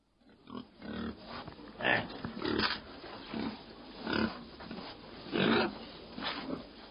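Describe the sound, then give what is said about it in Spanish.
Pigs roaming freely and rooting in the mud of a stream by a hospital grunt and snort in a steady series of short, rough bursts, roughly one every second, over a low continuous rustling background with no talking. “Un entorno en el que además campaban como querían los cerdos del hospital, Hospital de San Antón, pozando entre los lodos del arroyo.”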